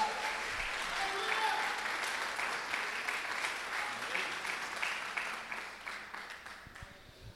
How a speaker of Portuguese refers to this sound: Você pode aplaudir esse sacrifício maravilhoso aí, meu Deus.